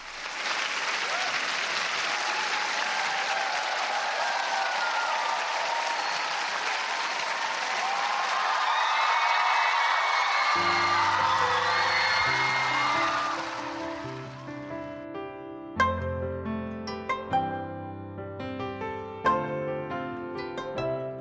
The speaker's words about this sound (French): On applaudit.